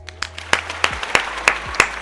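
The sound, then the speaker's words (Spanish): Applause for the captains of Aeroméxico flight 652 from Guadalajara to Mexico City, with a handful of loud, sharp claps landing in a steady rhythm about three per second over a softer patter of scattered clapping. No one speaks. “aplausos a los capitanes que estuvieron en este vuelo.”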